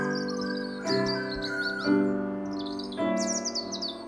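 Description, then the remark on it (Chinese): Several birds chirp and tweet in overlapping bursts of high, quick calls, answering a young dove's loud call toward the ground. The calls rise in waves about once a second over a steady, sustained tonal backdrop, with no voices. “小鸠大声的向地面啼叫，结果传来更多的鸟儿啼叫。”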